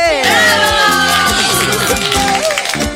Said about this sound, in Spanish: Un aplauso, che.